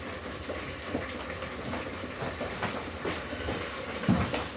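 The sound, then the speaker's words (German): Eggs sizzling in a frying pan: a steady, hissing crackle with scattered pops and one louder snap near the end. No one speaks. “Ja, die Eier brutzeln hier sehr schön.”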